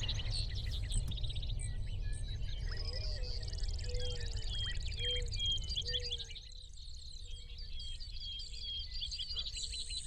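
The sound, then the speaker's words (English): A blue nightingale chirps repeatedly in quick, high bursts amid a busy chorus of other birds and insects, over a steady low outdoor rumble, with no one talking. “beautiful little bird down there.”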